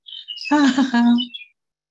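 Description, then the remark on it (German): A short chirping alert tone sounds on its own: a few high twittering blips, then a brief bright warbling tone lasting about a second before it cuts off, fairly loud. “zwitschert hier schon rum.”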